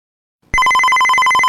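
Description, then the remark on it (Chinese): After a half-second of silence, a telephone starts ringing loudly: a steady, high electronic tone with a fast, even warble that keeps going without any voices. The call connects a program to a guest in Melbourne. “所以呢我们是通过电话连线的方式进行的。”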